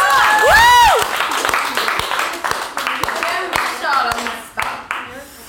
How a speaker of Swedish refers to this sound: En applåd.